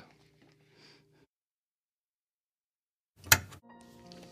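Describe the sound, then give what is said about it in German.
A single sharp click, produced by a person in a studio, cuts through near-silence, followed by a faint breathy, voiced murmur; soft low hums come before it. “Hören Sie echt dieses Klicken auch immer? Ja, das ist, ähm, also ich, ich produziere ja dieses Klicken, also.”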